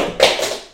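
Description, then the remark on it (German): A mobile phone drops and strikes a hard surface, giving one sharp clattering knock with a short rattling tail that fades within about half a second. “Entschuldigung, das war mein Handy.”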